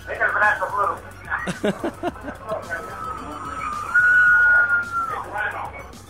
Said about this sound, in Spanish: Pero escucha las griterías, ven, oye, oye. ¿Lo escuchan? Sí. Se escuchan los gritos por ahí, a ver, a ver. Ahí están, ahí están los gri- Ahí viene otro.